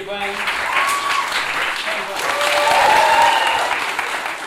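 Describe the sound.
A steady burst of audience applause at a Maestro improvisation elimination competition, where the audience gives points by clapping; dense and loud throughout, with some cheering voices and a few whistle-like tones rising above the clapping.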